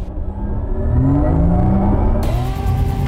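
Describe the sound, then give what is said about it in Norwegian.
A GTS-version electric sports car accelerates hard on a race track, its motor whine rising steadily in pitch over a loud, continuous rush of road and wind noise, sustained throughout. “De som ikke tror at motorsport og banekjøring er gøy med elbiler, de har ikke prøvd dette her, for dette her er helt voldsomt.”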